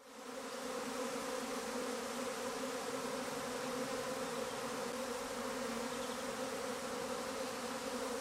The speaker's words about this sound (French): vous avez reconnu le bourdonnement des, abeilles, suivi d'un chant surprenant.